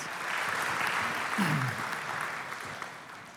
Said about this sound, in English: And hey, why don't we give all three uh, of these amazing people a round of applause? Thanks, guys.